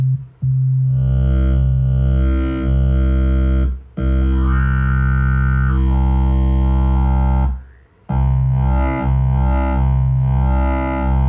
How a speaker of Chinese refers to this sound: 就如果你用一个 F4 去调变那个 level 的话，就听到那样哇哇哇的声音。